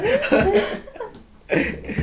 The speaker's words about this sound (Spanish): Aquí en este mitad se está ahogando Puedes omitir alguna, algún, alguna parte de la tos, pero él se está ahogando me parece.